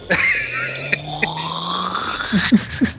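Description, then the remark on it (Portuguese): A person makes a raspy, gurgling throat-clearing noise with their voice, like hawking up phlegm before spitting, sustained for a few seconds with a few short rough bursts near the end. “Esse barulho você faz antes de cuspir, né?”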